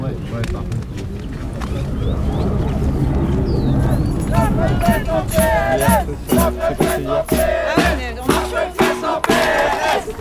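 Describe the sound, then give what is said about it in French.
A huge, joyful protest march crowd of tens of thousands, at least 30,000 people, roars and chants outdoors as the processions set off with megaphones, many voices rising together in loud rhythmic bursts, with steady rumbling background noise and wind underneath. “Les cortèges vont s'élancer c'est noir de monde et joyeux, on n'en revient pas.”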